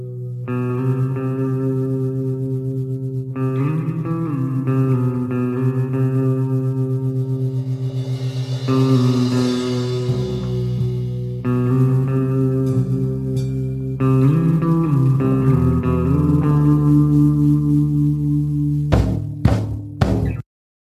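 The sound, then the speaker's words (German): A band plays a short instrumental intro piece with sustained, effect-heavy guitar tones over a steady low bass line, loud and continuous, ending in a few sharp final hits and a sudden stop. “Übrigens, by the way, ich muss noch mal einen kurzen Exkurs machen, jetzt wo ich das Intro gehört habe und jetzt wo unser Gitarrist weg ist”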